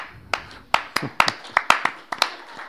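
crowd, audience applause

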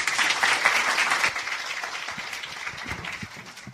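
crowd, applause

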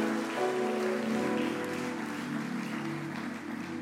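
crowd, audience applause

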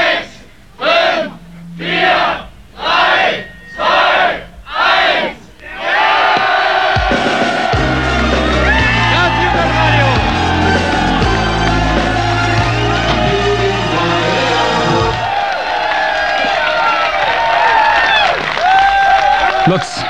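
crowd, crowd cheering

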